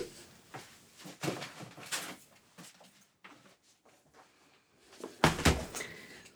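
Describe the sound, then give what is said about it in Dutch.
A cupboard opens with a few soft knocks and rustling as a Bible is taken out, then a louder thump near the end as the door shuts. No one speaks. “Want ik heb hem hier in de kast staan.”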